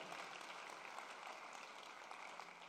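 An audience applauds steadily for the Lord, a dense wash of many hands clapping at once with no pauses, even from start to finish.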